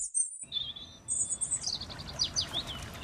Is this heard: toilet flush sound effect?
no